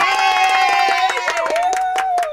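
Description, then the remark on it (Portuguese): A short burst of applause sound effect: loud, steady clapping with cheering voices and whistle-like tones over it, lasting about two seconds. “Bota aplauso aí pra ele.”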